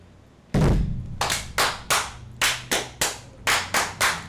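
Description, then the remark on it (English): During a toast to first responders, glasses are thumped down on a wooden table: one heavy, booming bang, then about nine sharp, loud knocks in a steady, slightly uneven rhythm, with no talking. “I like this table much better because it doesn't reverb. well, I like on the wooden table, it's like boom.”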